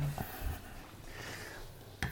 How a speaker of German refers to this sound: Die Gläser kommen.